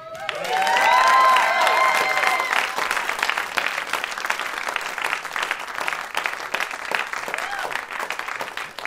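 A crowd at a variety show bursts into loud, sustained applause with whoops and cheers for a rapper and beatboxer, strongest in the first couple of seconds, then settles into steady clapping with scattered shouts throughout.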